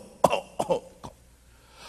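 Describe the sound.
A person demonstrates a cough: three short, harsh coughs. The first two come in quick succession and the third is fainter, followed by quiet.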